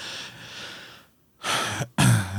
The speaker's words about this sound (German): Schön dieser Räusperer noch.